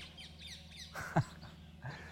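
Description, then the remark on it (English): Birds call outdoors: a run of quick, high chirps gives way to a single louder, harsh caw-like squawk, then softer calls fade against a steady background hum. “these birds are beautiful, but Jesus didn't die for birds”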